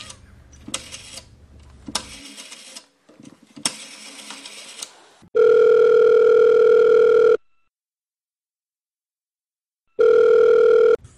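A payphone call to Twitter support in Johannesburg: several seconds of mechanical clicking and ratcheting give way to a loud, steady telephone ringing tone that sounds for about two seconds, stops, then starts again. No one speaks.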